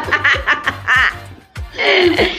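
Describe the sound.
A person imitates a duck with a rapid run of nasal, raspy quacks, loud, ending in a longer drawn-out quack.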